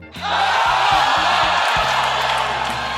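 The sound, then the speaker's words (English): A large crowd at a baseball game cheers and claps in a steady, dense roar, with whoops rising above the broad noise throughout, staying loud and sustained for the whole three seconds. “So, Maybe we take, you know, the sound of the ball hitting the bat and then a crowd clapping.”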